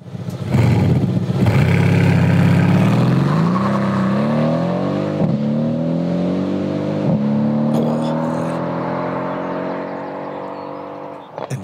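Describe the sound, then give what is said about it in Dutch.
A loud AMG car engine revs hard, its pitch climbing repeatedly as it pulls through gears, with a few sharp pops and crackles between the surges. “We, kunnen, we kunnen gewoon een uitzending vullen met alleen maar motorgeluid.”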